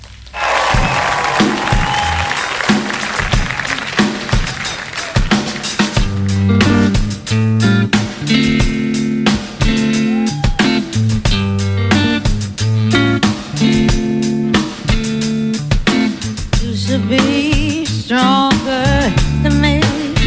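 A live soul band plays a steady groove with punchy drums, a warm bassline and sustained horns or keys, opening with a brief burst of audience applause and crowd noise before the music takes over.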